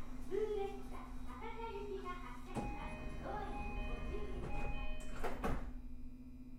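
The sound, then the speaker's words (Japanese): Train doors slide shut with a couple of dull thuds near the end, over a steady electrical hum while an announcement voice talks in the background, as a local train bound for Takadai departs. “高台行き普通列車発車します。閉まる側にご注意ください。”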